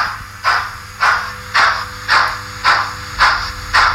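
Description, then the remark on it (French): Rhythmic chuffs of steam hiss from a model steam locomotive, about seven evenly spaced bursts over a steady low mechanical hum, fairly loud. “Fatalement, le, bruit de la vapeur.”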